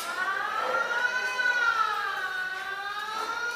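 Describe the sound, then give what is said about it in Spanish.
A group's alarm siren wails loudly and steadily at a group meeting, its rich, buzzy tone slowly rising and falling in pitch throughout, with no voices over it. “la alarma del grupo yo no La Santa Sirena, muy bien.”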